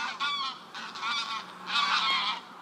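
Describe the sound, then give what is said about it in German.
A flock of greylag geese honks while flying overhead in wedge formation at the Ibner Moor, Austria's largest contiguous moorland. Overlapping, nasal, harmonic bursts swell and fade in loose waves, fairly loud, with no voices present. “Ein Schwarm Graugänse zieht in keilförmiger Formation über mich hinweg, sonst ist es still.”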